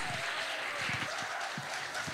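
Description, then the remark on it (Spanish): A church audience claps steadily for God during a sermon, in a dense, continuous wash of applause, with scattered voices calling out beneath it, filling the whole moment without pause. “Habrá alguien que pueda aplaudir a Dios.”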